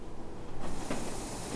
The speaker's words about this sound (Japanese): 電車が参りますご注意ください